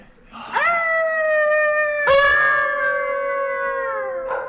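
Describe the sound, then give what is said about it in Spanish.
Two long, sustained dog howls in succession, the second starting loud with a sharp onset and slowly sliding downward, with a hint of another howl beginning at the end. “Hasta que arrastrados por el viento que ahora soplaba suavemente por el desfiladero, se oyó un coro de aullidos que parecían provenir de toda la región.”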